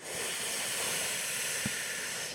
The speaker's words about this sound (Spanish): Eh, la respiración que podemos hacer aquí también es la respiración de Shitlali Pranayama, que también le llamo la respiración del chilito. Si tú separas tus labios y juntas tus dientes, vas a inhalar por los dientes